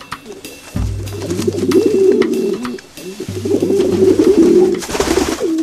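bird, pigeon cooing

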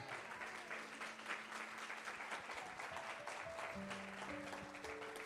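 crowd, audience applause

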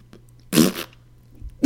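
sound effect, fart noise sound effect

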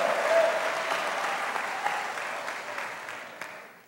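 crowd, audience applauding

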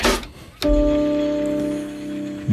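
sound effect, music track

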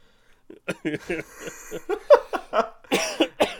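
human body sound, coughing

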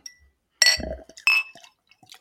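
household object, opening a beer bottle

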